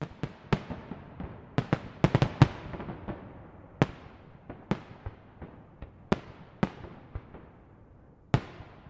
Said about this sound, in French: Pour couronner cette soirée magique, un feu d'artifice extraordinaire vient illuminer le ciel au-dessus de Central Park. Comme un signe de …, ….